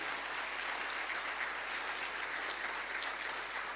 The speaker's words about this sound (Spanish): Dale un fuerte aplauso al Rey de Gloria.